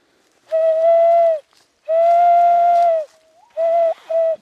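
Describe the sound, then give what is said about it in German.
A man imitates a dove's cooing call with steady, hollow hooting tones: two long drawn-out notes, then two short ones, fairly loud with no talking. “Así llamaban la paloma también.”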